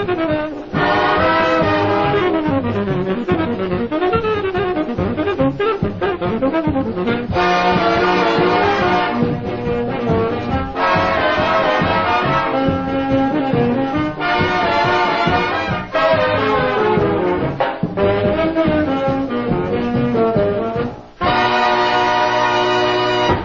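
A brass orchestra plays a lively frevo march, loud and continuous, with bright massed horns driving a brisk rhythm throughout and a short break near the end; no voices.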